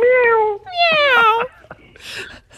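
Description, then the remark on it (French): A voice imitates a cat, saying goodbye in the manner of the cat Choupette, with two drawn-out, falling meows in quick succession, fairly loud, followed by a few soft breathy sounds like quiet laughter. “Miaou, miaou.”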